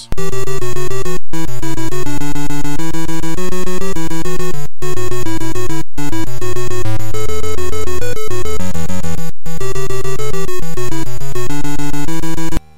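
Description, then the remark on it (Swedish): The ZX Spectrum music program Wham! The Music Box plays a loud, buzzy chiptune: harsh square-wave notes step through a fast, busy melody over a bass line, broken by a few very brief silent gaps, with no voices. “Och som tonåring så blev Gonzales introducerad till musikprogram på ZX Spectrum titulerat Wham! The Music Box.”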